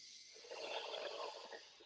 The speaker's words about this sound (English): So, let's go ahead and do three power breaths in. I define it breathing in through the belly up through the chest. Go ahead and breathe in.